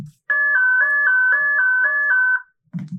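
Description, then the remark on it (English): A rapid run of electronic beeps from a handheld code-breaker device, a gray cylinder with a wire and a clip: about nine short identical tones in quick steady succession, loud, with a soft low thud before and after. “She ran over and took the device from his hands. It was beeping rapidly.”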